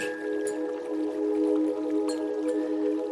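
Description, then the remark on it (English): Steady rain patters with a few louder drips, blended beneath a soft sustained musical drone at a calm, even level, with no one speaking. “From your window, you notice the sky is growing dark and it begins to rain.”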